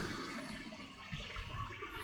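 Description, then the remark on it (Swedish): A steady rushing fizz of an Italian spumante sparkling wine foaming over like a fountain, a dense bubbling hiss that keeps going for about two seconds with no voices. “Rejält med bubblor.”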